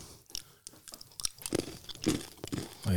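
Crunchy chewing of hard-shelled M&M's candy, a steady run of sharp, brittle crunches and moist mouth sounds over about three seconds, with no talking.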